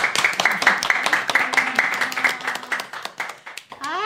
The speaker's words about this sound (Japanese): 見に来てくださった皆さん大きな拍手お願いします